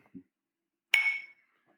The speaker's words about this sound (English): I'm going to cheers you here, sir,